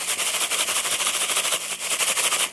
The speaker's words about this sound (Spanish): Vamos a ver cómo nos trata entonces esta rústica tómbola que, si escuchan bien, miren, o escuchen